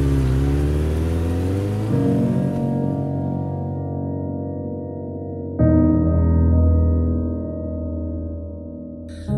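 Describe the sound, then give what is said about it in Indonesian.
A motorcycle taxi's engine is started and runs loud, its idle rising in steady revs with distinct jumps in pitch, a continuous throaty rumble with no one speaking, as the two riders put on helmets. “Dinyalakan sepeda motor, keduanya langsung menggunakan helm sebagai syarat keselamatan saat berkendara.”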